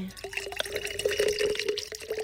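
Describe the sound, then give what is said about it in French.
A steady stream of liquid trickles and splashes continuously, like someone peeing into a toilet, with a faint ringing pitch running through it for about two seconds. “faire pipi.”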